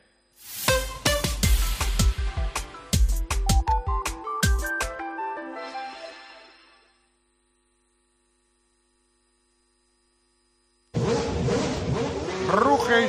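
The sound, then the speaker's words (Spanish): A short musical jingle with punchy hits fades into a few seconds of silence, then a loud, high-pitched race car engine suddenly roars in, revving hard until the end; it is Fernando Alonso's new Formula 1 car, the MR23 single-seater, presented that day. “suena el nuevo coche de Fernando Alonso que hoy Carlos Miquel ha sido presentado.”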